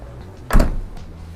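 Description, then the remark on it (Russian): A car's power tailgate is closed over the boot with a single solid thump and a brief rattle that fades quickly into a quiet background, with no one speaking. “Так, закрываем. Ну и, конечно же, по традиции тоже проверим защиту от защемления.”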